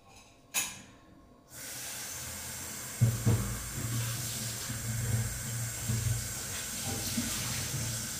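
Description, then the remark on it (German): A tap turns on after a brief clink, and water runs steadily into a sink as a coffee cup is rinsed under the flow, with shifting splashes and a broad hiss. “Jetzt Tasse ausspülen.”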